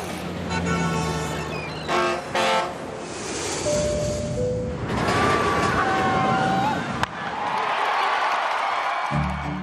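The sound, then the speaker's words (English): A rapid montage of loud, overlapping sound effects cuts from a skyscraper to a car, a ship, a plane, a roller coaster and a ballpark crowd, each lasting only a second or two, representing things covered by PPG paints and coatings. “That was a skyscraper, car, ship, plane, roller coaster, and a ballpark.”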